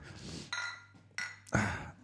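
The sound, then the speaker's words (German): A cold drink, kept two days in a car trunk, is opened, with a few sharp glassy clinks and knocks in quick succession, ringing briefly against a quiet background. “Wir ich öffne ja, derweil ein Getränk.”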